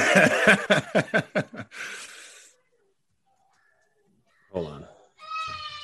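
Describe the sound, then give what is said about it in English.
Children's voices make noise in the background, with a burst of rapid, laughing sounds at the start and a high-pitched childish squeal near the end; an adult speaks briefly between them. “Kids, bro. It's kids.”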